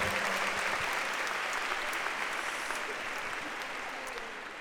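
A crowd applauds steadily, dense overlapping claps forming a continuous rush that holds for several seconds and then begins to taper slightly at the end.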